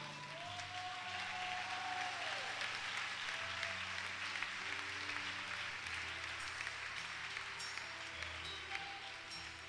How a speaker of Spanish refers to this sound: Mire ese aplauso ridículo.